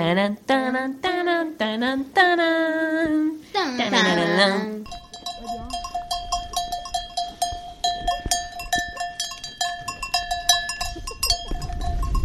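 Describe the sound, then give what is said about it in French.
Several loud sheep bleats open the scene, then the bells of a flock being brought home by shepherds in the Alpilles at the end of the day take over, clanking and jingling in a dense, uneven jumble that keeps going, with soft rustling underneath. “Vous entendez les cloches derrière Ce sont les bergers qui rentrent leurs moutons.”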